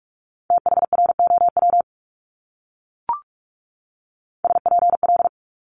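Rapid Morse code practice of multi-letter phonemes at 45 wpm: two quick bursts of steady mid-pitched beeps with a pause between them, broken by a single short click in the gap.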